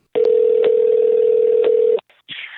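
A loud, steady telephone tone as a phone call is placed, holding for nearly two seconds with a few faint clicks, then cutting off into a brief crackle of line noise. No one speaks.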